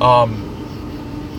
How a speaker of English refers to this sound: Um, a train is going by. Right a, a, train is going by right now.